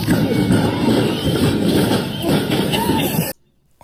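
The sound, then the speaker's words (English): People ride down a bumpy, newly reopened giant slide in Detroit with a loud, continuous rumbling scrape and repeated jolting thumps, voices mixed in, before the noise cuts off abruptly near the end. “This is the sound of people going down it.”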